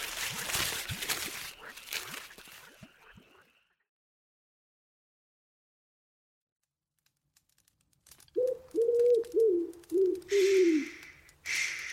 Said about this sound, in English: little bird.